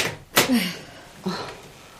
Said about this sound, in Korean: 현관문을 열자 엄마가 서 있었다.